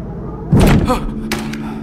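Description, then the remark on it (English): A single heavy thud of something sizable slamming against an apartment door, loud and booming, followed by a brief rattle and a softer second knock as it settles. “As he put his phone away, something sizable smacked against the door.”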